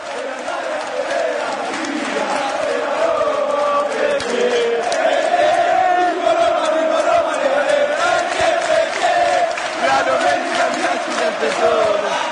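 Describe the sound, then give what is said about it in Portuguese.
A large crowd of Roma football supporters sings together in a stadium, a loud, steady wall of massed voices carrying a wavering melody for the whole stretch, with no break or pause. “e a torcida da Roma maravilhosa.”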